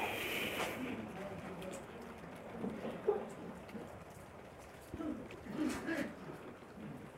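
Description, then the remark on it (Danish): Steady rain patters outdoors with a dense, hissing texture and occasional sharper drips, while a faint voice murmurs in the background. “Den er nu blevet stillet til slukning ude i regnvejret.”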